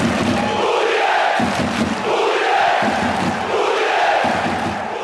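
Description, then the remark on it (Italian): A large crowd of football fans chants together in the north stand of a stadium, a loud, sustained wall of voices rising and falling in rhythmic waves with no individual speech audible. “andrei a, a sentire un po' le voci corali di questi tifosi. Andiamo ad ascoltare quindi subito il loro entusiasmo e andiamo correndo sotto, sotto la, la, Nord.”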